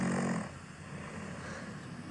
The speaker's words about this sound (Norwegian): Ja, det høres ut som snorking.